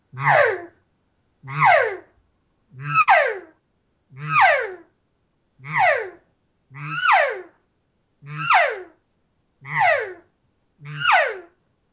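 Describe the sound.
A person vocally imitates a cattle call, voicing it with vibrating vocal cords and repeating a drawn-out 'ooh' nine times at a steady rhythm. Each call is fairly loud and sweeps downward in pitch, with no talking in between.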